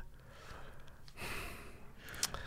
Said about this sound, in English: He just he leaned forward, hunched a little bit, and now he's breathing heavily.